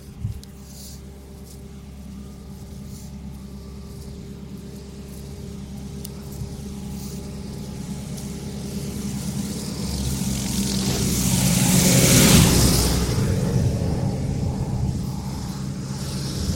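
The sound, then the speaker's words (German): A large diesel tractor rumbles closer with a deep, steady engine drone, swelling to a loud roar as it passes, then gradually fading away. “Jetzt kommt ein dicker, ein dicker Trecker angefahren und ich muss mal eben an die Seite gehen.”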